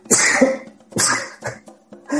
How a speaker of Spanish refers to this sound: Un momento, que voy a estornudar.